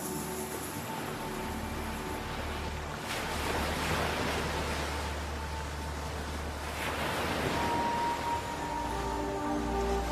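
Sea waves wash onto a shore in broad, rolling surges, two clear swells building and receding over steady background surf, moderately loud, with no voices.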